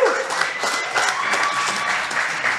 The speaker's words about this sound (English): Um, obviously, two amazing artists in our space. Can we get a round of applause for these guys? Woo!